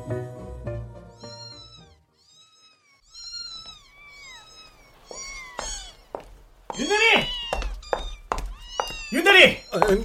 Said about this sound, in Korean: 아니, 아니, 저, 지금 저, 저, 고양이 울음소리 저거 나만 들리나?